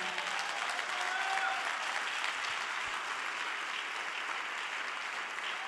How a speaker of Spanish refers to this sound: Iba a aplaudir, aplauda bien de una vez.